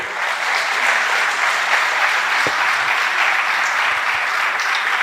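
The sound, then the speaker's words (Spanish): Loud, sustained applause for Trujillo from a crowd, a dense steady clatter of many hands clapping at even volume for several seconds with no one speaking. “Este, un fuerte aplauso para Trujillo, por favor, un fuerte aplauso.”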